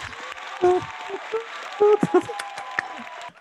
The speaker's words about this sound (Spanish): Ah, me faltaba el, sonido de aplausos. Deme un segundo.